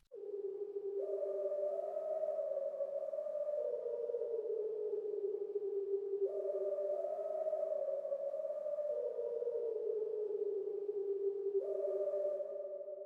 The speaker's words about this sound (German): Damit das Hauptthema ein bisschen mehr spooky ist, wird das nicht nur von den offensichtlichen Instrumenten gespielt, sondern zusätzlich noch von einem Chor gepfiffen.